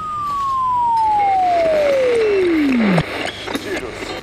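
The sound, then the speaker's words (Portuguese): A long falling whistle-like tone slides down over busy street noise, then gives way to a brief burst of crowded traffic din with raised, shouting voices. “gritaria, engarrafamento de trânsito.”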